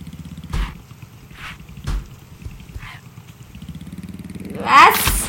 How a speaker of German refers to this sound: Auto? Äh, nee. Motorrad?